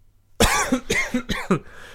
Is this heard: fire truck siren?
no